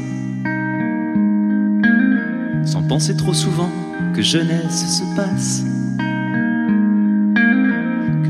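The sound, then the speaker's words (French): A live French chanson recorded at a stage show for a live album: a voice sings in French over sustained, steady instrumental chords, the full arrangement carrying a roomy reverb and holding an even level throughout. “un titre qui va figurer sur un album live”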